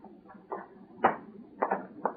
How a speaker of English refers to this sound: Open that door. Uh, at once, Your Excellency, at once. Into your laboratory, my fine doctor.